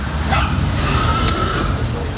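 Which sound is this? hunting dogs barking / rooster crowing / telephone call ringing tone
hunting dogs barking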